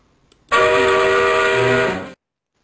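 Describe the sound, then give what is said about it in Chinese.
A train horn sounds as the train starts, one loud, sustained blast lasting under two seconds, a rich, reedy chord that holds steady before cutting off abruptly. No one speaks over it. “好，大家坐好啊，抓好把手，然后系好安全带，我们的火车启动了。”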